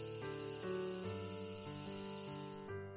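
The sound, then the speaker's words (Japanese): A steady, shrill screech of a cicada clinging to a tree branch drones without a break over a gentle melody of changing notes, then cuts off abruptly just before the end. “とセミが木の枝につかまり、みーん、みーんと鳴きます。”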